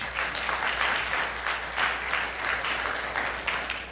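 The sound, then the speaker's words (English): People at a church applauding the band in the morning, steady dense clapping that holds at a fairly even level throughout without fading, with no talking over it. “Let's thank our band this morning. Thank you so much.”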